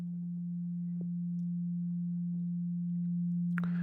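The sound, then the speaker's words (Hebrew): A steady, pure synthesized 574 hertz sine tone hums on without a break at an even, fairly low pitch, with a few faint clicks over it and a brief soft noise near the end. “ורק כדי להמחיש לכם טיפה איך זה נשמע, אז כשאני אומר תדר, זה התדר המסונטז, זה 528 הרץ, זה 574 הרץ,”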